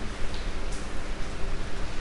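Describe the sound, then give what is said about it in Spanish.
Steady rain falls outside, heard as a soft, even hiss through a window, with a few faint taps of drops against the surface and no voices. “En este momento me inspiro con la lluvia que estoy escuchando a través de mi ventana y Vamos a pedirle al Espíritu Santo que el día de hoy llueva.”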